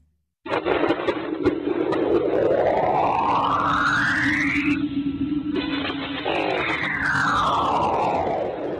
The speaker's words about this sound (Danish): Det her er lyden af magnetfeltet omkring Saturns måne Enceladus. Eller det er sådan set målingerne fra NASA's rumsonde Cassini, som er blevet forvandlet til lyd.